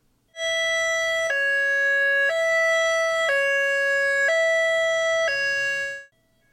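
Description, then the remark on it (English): A loud high-low emergency siren, used by first responders in Nevada County for direct notifications, alternates between two tones in a steady high-low pattern, switching about once a second for roughly six seconds, clear with no talking. “deputies on the ground or first responders with their high low sirens doing direct notifications”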